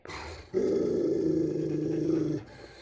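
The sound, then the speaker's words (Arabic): A low, sustained growl from a dog-like animal rumbles steadily for about two seconds, loud, after a brief softer lead-in, with no talking. “ما كان فيه ولا صوت هدوء تام فجأة نط من ميلي شي بيشبه الكلب”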